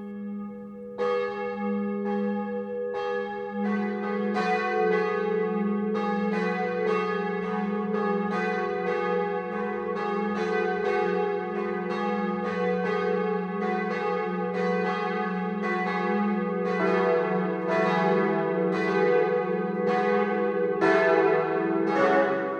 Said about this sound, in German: 12 Uhr läuten. Es ist 12 Uhr. Das Mittagsläuten kommt heute aus dem schwäbischen Westheim.